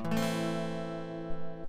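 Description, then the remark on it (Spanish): A single A minor chord strummed once on a guitar, ringing out clearly and evenly for under two seconds before being cut short, with no talking. “Este es un la menor.”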